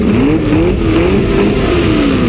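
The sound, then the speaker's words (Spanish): A car brakes hard, its tires letting out a steady, wavering screech over a loud, rough roar of engine and road noise, continuous for a couple of seconds, leaving two long black marks on the pavement as the driver stops before hitting a man on the road. “mientras pisaba el freno provocando un fuerte chillido y dejando dos largas marcas negras en el pavimento.”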